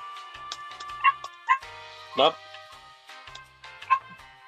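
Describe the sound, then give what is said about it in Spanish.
An old female dog lets out four or five sharp barks and high yips at irregular intervals, with one longer, strained bark in the middle over a low background hum and faint voices. “Pinche perra. Eh, y es la más viejita, güey, la más latosa, güey.”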